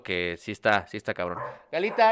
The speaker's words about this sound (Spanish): perdón, perdón por los ladridos.